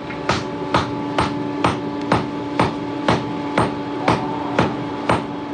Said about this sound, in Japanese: この音何かわかりますかなんかを叩いてるような音なんですけれどもはい姫路の代表的な伝統工芸品である明珍火箸が生まれる瞬間の音です